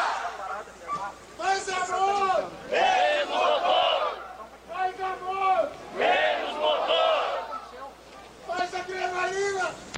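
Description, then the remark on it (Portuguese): A crowd chants the battle cry of the Massa Crítica (Critical Mass) cycling movement, marking International Cyclist Day, in loud repeated shouted bursts, several voices rising and falling together in a steady rhythm of about one call every two seconds. “grito de guerra e da massa crítica, a gente começa então a nossa homenagem ao Dia Internacional do Ciclista.”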